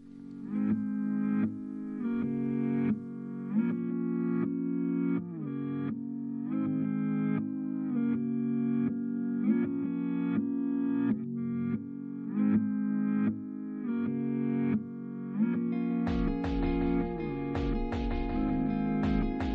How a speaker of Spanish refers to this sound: mismo trozo, solo que he dado la vuelta. Y luego eh, lo que he hecho pues ha sido simplemente añadir pues un arpegio y una batería electrónica, eh, como hacen en la canción original